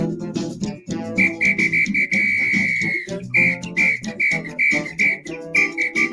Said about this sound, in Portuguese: Eu toco bem apito, hein? Eu, eu toco apito, eu tocava apito quando tava, participava da banda da escola, tá, essas coisas. Sou tocador de apito. Você pensa que é fácil tocar apito? Tem uma técnica.